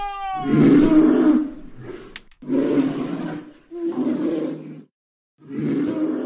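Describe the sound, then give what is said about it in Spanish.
A bear roars loudly in four deep, rumbling bursts of about a second each, separated by short pauses, with no talking. “¿Qué fue eso? Eh, no, osito, osito, no, oso, osito.”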